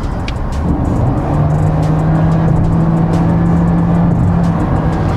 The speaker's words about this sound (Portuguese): O câmbio é CVT, mas se você pisa forte, você consegue fazer uma simulação. Ele apresenta como se você tivesse fazendo as trocas de marcha, né, com cada rotação. Vamos dar uma aceleradinha aqui.